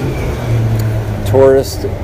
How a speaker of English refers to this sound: Hang yeah. on, huge dump truck.